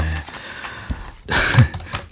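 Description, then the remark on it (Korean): Computer keyboard typing with one finger, played as a sound effect on a broadcast: a quick flurry of clicky keystrokes that is soft at first, then grows louder and busier in the second half, with no voices. “아, 키보드 소리군요.”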